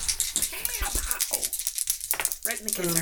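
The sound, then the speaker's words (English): Dice rolled for a power roll clatter and rattle in a quick burst of sharp, overlapping clicks lasting a few seconds, with murmured voices underneath and a person starting to speak near the end. “make me a power roll?”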